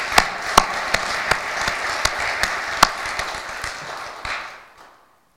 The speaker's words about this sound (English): So let us give a round of applause for each of those who are involved in this. You are counted.